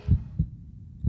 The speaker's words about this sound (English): That's the sound of the amazing heart beating at the rhythm of life every minute, every minute, every hour, every hour, every day until the beat stops, caused by the number one killer in Missouri, heart disease.